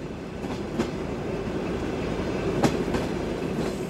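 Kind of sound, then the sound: vehicle, train rolling on rails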